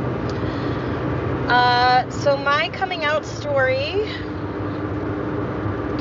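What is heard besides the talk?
car interior driving noise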